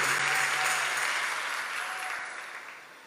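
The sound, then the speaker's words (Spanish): A crowd claps steadily in a dense, continuous wash of applause that stays fairly loud before tapering off slightly toward the end. “denle el aplauso fuerte.”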